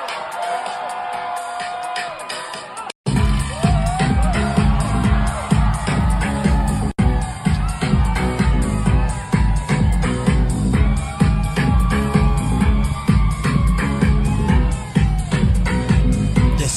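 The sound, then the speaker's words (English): A huge concert crowd screams and cheers in a loud, continuous roar, broken only by a brief cut near the start before the wall of voices surges back; the crowd stands with hands in the air holding phones, not dancing. “They're literally all standing there with their hands in the air, with their phones, no dancing.”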